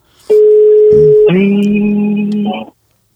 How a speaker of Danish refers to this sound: Det er normalvis noget, Andreas ikke kan lide, det der med telefonlyd.